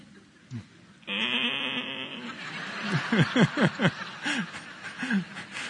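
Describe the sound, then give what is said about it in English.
A person imitates the bleat of a sheep being hit with a rapid series of wavering, nasal 'baa' sounds, fairly loud, mixed with breathy laughter and no words. “or whatever they sound like when they get hit like that.”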